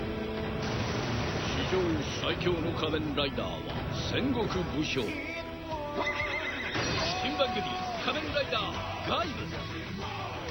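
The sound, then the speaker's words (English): A horse ridden by Gaim neighs loudly and whinnies repeatedly, its high cries rising and falling over clip-clopping hooves and a busy, dense soundtrack that stays loud throughout. “He's on a horse.”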